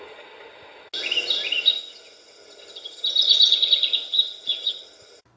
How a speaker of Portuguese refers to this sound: Passarinho. Os passarinhos.